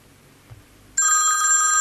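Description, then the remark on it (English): A telephone starts ringing abruptly partway through, a loud, steady electronic bell tone with bright harmonic layers that continues to the end after a quiet low rumble. “Oh, look! We've got a phone call.”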